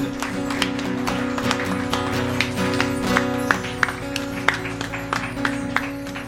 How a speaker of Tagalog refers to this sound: Lahat naman tayo, bigyan natin ng mas malakas na palakpak ang Panginoon.